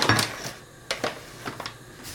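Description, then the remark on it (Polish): Lazy dumplings (Polish leniwe kluski) drop one after another into a pot of boiling water, making a handful of short splashes and plops at an uneven pace over a low simmering background. “Woda się gotuje, więc wrzucamy po kolei i czekamy aż wypłyną.”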